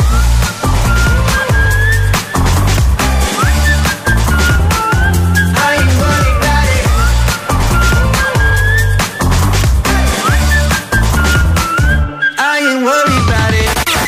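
A loud pop track with a bright whistled melody gliding over punchy drums and deep bass, the beat steady throughout before a brief breakdown near the end.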